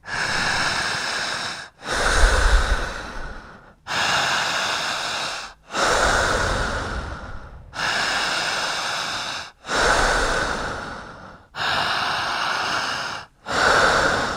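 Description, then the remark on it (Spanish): Loud, intense panting only through the mouth, a steady rhythm of strong, forceful breaths about every two seconds with brief gaps between them and no talking. “Sigan respirando solamente por la boca, al estar respirando bien, empezaremos físicamente a sentir cositas raras.”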